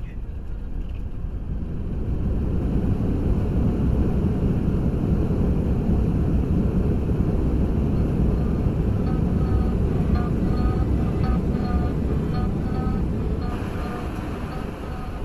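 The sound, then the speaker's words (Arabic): A steady, loud low roar of an airplane heard from inside the cabin, with a faint high whine over the constant rumble; an Indonesian airline flight that circled in the air and landed safely back at Jakarta airport, where it had taken off. “الحمد لله هبطت الطائرة بسلام ولكن على الفاضي عملنا لفة في الهواء ونزلنا في نفس المطار اللي انطلقنا منه”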